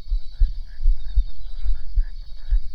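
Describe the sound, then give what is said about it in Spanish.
A steady, heavy heartbeat thumps low, roughly two beats per second, over a faint sustained hum; no one speaks. “y nuestros corazones laten más fuerte.”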